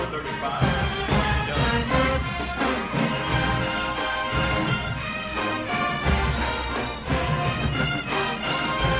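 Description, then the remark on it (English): The Jackson State University marching band, A Band vs B Band, 2023, plays an old-school classic loudly and continuously, with brass melodies over heavy drums and booming bass, dense and energetic throughout with no talking. “Jackson State University Marching Band ”A” Band vs ”B” Band”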